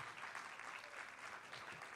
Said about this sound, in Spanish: Alguien está aquí conmigo. Alguien le da, pero den un aplauso como si usted entendiera lo que está oyendo.